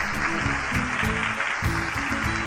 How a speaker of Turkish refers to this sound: Ben sizi bir kez daha alkışlamak istiyorum. Bravo, bravo, bravo.